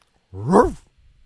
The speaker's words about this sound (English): Very solid bark. Oh, there's a dog in my apartment. oh, very solid bark, dog.